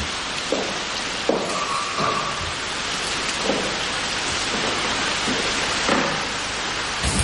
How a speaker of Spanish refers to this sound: La lluvia cae fuera de muy intenso y ella se asoma.